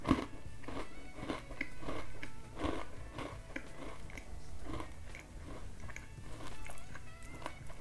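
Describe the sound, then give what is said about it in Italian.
Crisp crunching as crunchy food is munched, with repeated bites in a steady rhythm over a faint background hum, no voices. “Sgranocchiare Amo questo verbo, mi piace tantissimo, non solo per il significato che esprime, ma anche proprio per la parola in sé, il suo suono.”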